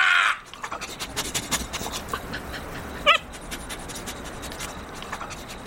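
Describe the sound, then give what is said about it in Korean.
A dog gives a short, squeaky yawn, a brief whine-like rise and fall over a quiet, rustling background with no one talking, before resting its head on its front legs and closing its eyes. “한술 더 떠서 개는 짧게 하품을 하더니 자신의 앞다리에 머리를 괴고 눈까지 감았다.”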